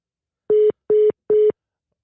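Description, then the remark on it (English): Three short, evenly spaced beeps of a telephone line tone, the kind heard after a dropped call. They are clear and steady, with no talking. “But we are going to go ahead and try to get her back up here on the phone. We lost her.”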